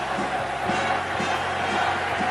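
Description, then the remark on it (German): A huge stadium crowd of 100,000 applauds the runner Waldemar Czerwinski from Halle as he enters the stadium, a dense, continuous wash of clapping and roar, steady and loud throughout with no individual voices standing out. “100.000 umfangen ihn mit dem Beifall.”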